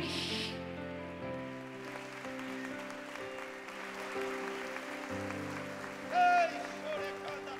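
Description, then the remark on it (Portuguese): A crowd applauds steadily and loudly for the name of Jesus, a dense crackle of many hands clapping at once, over sustained keyboard chords that hold underneath throughout. “Quem está preparado para a reação de Deus aqui, aplauda bem forte o nome de Jesus.”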